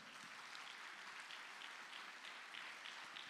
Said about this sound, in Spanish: Dele palmas al Rey de la Gloria.